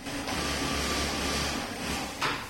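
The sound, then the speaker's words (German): Sewing machines whir and rattle steadily in a clothing production workshop on the fourth floor of a backyard building in Kreuzberg, Berlin, where irons give off steam; a continuous mechanical chatter with a low hum beneath, ending with a short sharp hiss. No one speaks. “Nähmaschinen, Dampf aus Bügeleisen, Schnittmuster an Kleiderstangen.”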